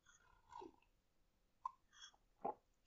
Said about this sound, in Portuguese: Deixa-me aqui beber o meu café.